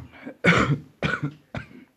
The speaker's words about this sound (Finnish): Yskäisepäs. Hengitä. Pidätä hengitystä. Yskäise vielä.